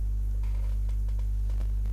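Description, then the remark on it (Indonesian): A steady, low-pitched censor bleep tone drones without a break for about two seconds, loud and buzzy, with faint noisy flickers above it and no speech. “itu gue sensor ya gue sensor itu suara ini”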